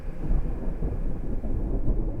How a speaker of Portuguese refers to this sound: E no mesmo instante, as formas algodoadas que pairavam leves no céu começaram a acinzentar-se e, como que feitas de chumbo, enraiveceram-se a ponto de soltar raios e trovões ensurdecedores.